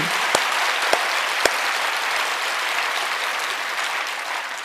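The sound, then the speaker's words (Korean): An audience at a Korean-language church sermon applauds steadily, a dense wash of many hands clapping with no voices, holding an even loudness before easing slightly at the end; a few sharper claps stand out early on. “여러분 박수를 치려면 확실히 치십시다.”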